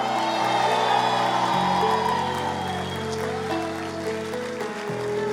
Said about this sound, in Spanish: Alguien tire un grito de gloria.